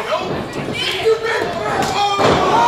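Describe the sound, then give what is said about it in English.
A big shoulder tackle in a wrestling match: a heavy body slam thuds onto the ring mat, with crowd noise and voices carrying on around it through the short, busy moment. “Big shoulder tackle”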